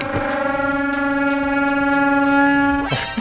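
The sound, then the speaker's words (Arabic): A dinosaur roar rings out as one long, loud, steady bellow with a deep horn-like tone, held for about three seconds before breaking off, with no voices over it. “هذا هذا صوت صوت الديناوس اللي عندنا سو سوغوي هذا الوحش الاخر هذا او او قدوم الوحش الاخر”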